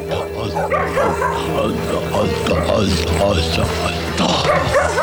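Boogie, a bush dog adopted by saxophonist Barney, barks and yips excitedly again and again, loud, with high whiny yelps mixed among the barks over a steady low hum throughout.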